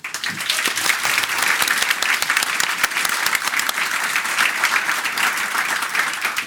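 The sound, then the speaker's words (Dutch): An audience at a Radboud Reflex event claps steadily for several seconds for the speakers and an opening column, a dense, even wash of many hands with no voices standing out, holding at a consistent loud level throughout. “En ik graag een hartelijk applaus daarvoor.”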